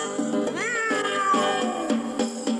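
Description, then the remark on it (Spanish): A long, drawn-out cat meow rises in pitch and then slowly slides down, fairly loud over a steady musical backing of a song, with short plucky accents around it. “el gato que vive en el tejado.”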